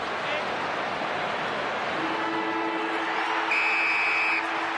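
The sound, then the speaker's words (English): A football match's final siren blares over a loud, roaring stadium crowd, a steady electronic tone sounding near the end for about a second as the crowd noise surges. “He's going to hear the siren, and it's going to be devastating.”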